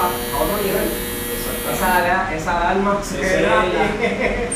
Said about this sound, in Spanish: esa es la alarma, mira. Esa es la alarma de que lo que tenemos aquí adentro.